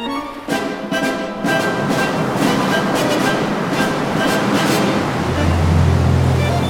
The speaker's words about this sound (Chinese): 好可怕！这艘船会不会被海浪卷走？